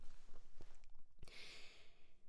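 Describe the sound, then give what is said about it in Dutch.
A quiet sip of tea: a faint clink of the cup, then a soft airy slurp lasting under a second, with no talking. “Neem even een slokje van mijn thee.”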